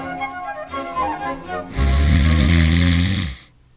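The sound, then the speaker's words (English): A man in a hospital room snores the night before an operation: loud, rough snoring rumbles, a ragged nasal buzz building into one long, heavy rasping snore before cutting off into quiet. “Oh, it's like being married to a steam shovel nurse.”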